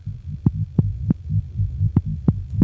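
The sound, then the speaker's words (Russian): A young man's rapid, quickening heartbeat thumps clear, sharp beats in quick pairs with a brief pause midway, over a steady low throbbing hum. No voices. “Когда была названа улица, где жила его любимая, пульс заметно участился.”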